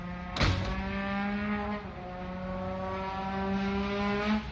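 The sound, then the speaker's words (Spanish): A brassy, buzzing sustained tone with steady harmonics, sliding slightly like an engine revving, a trombone mimicking a motorbike, loud with a sharp attack at the start. “¿Trombón o moto?”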